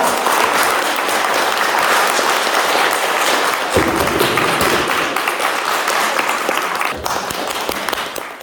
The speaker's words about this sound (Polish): Dziewczyny, pięknie Wam dziękuję za Wasze prace. Po prostu jesteście wielkie. Kocham Was. Wielkie brawa.